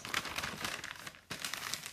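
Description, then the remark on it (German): Continuous wrapping-paper crinkling and rustling as a gift is wrapped, with a brief pause before a fresh burst of crisp crackles as the sheet is folded and handled. “So, jetzt versuche ich das mal annähernd gut zu verpacken.”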